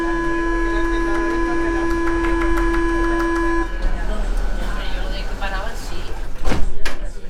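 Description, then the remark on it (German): A steady tonal signal sounds over subway station rumble, then cuts off as doors clatter and an underground train surges out of the tunnel into the station with loud mechanical noise, while passengers talk and jostle, getting off and then on. “Mit was für einer Wucht der Zug aus dem Tunnel in die Station brettert.”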